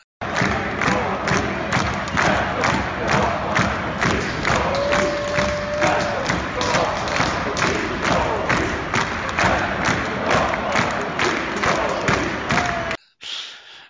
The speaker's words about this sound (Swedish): jag minns några videoklipp jag har sett där ni står med, med bucklan där och så sjunger om den som inte hoppar